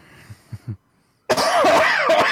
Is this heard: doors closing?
no